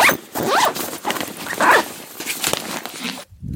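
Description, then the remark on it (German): Quick rasping zipper pulls, several short strokes back and forth, with faint jingling of keys and rustling as they are packed into a bag, ending abruptly. “Scheiß Schlüssel. Alter, in die Tasche gepackt.”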